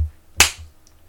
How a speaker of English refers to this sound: Why is there a clap?